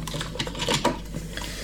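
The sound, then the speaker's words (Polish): Hard plastic clicks and clattering as the rectangular water tank, with a lid and handle, is pulled out of a capsule coffee machine and set down: a quick run of short knocks and scrapes, with no voices. “Jak się to wiaderko wyjmie, postawię na wodę, to tutaj jest taki gdyby schowek i w nim jest y, dysk do odkamieniania tego ekspresu.”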